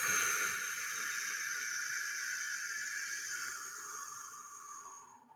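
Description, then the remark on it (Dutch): A long, slow breath out after a deep breath in, a slightly lengthened exhalation for relaxation, a steady airy hiss lasting about five seconds that gradually fades toward the end, with no talking. “Dus je, je ademt dan diep in en elke keer op de uitademing, als je die een klein stukje verlengt, dus dan, dat zou ongeveer zo klinken, dus je ademt in.”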